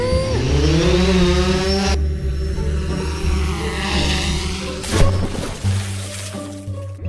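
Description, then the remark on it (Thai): A small remote-control toy airplane engine buzzes loudly and steadily throughout as the plane is flown by remote, its pitch climbing early on, dipping, then shifting again with a brief surge near the end, without any voices. “ลุงทองดีได้เผลอไปกดปุ่มปิดเครื่อง จึงทำให้เครื่องบินบังคับของจ้อย เสียหลักแล้วก็หล่นลงไปในสระน้ำน่ะ”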